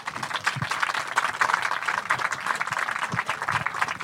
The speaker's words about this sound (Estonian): ma tahan, et tehke üks kõva aplaus esiteks neile neljale inimesele.